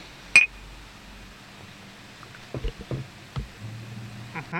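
Two shot glasses holding whiskey clink together once near the start in a toast, a bright tap with a short ringing tail, followed by soft handling and sipping noises.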